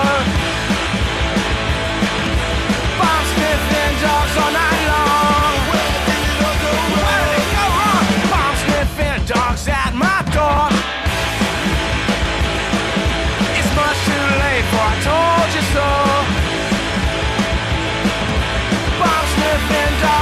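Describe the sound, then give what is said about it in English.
A loud, dense punk rock song played on the radio station CITR, with driving drums, distorted guitars and shouted vocals, playing continuously at full volume with a brief break in the middle. “let's play some songs, and I would like to start with the song”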